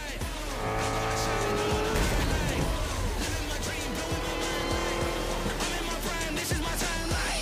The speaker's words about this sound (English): J'ai hâte d'entendre le son de la E-Ray. Euh, c'est pas électrique, ça. Non, c'est pas électrique.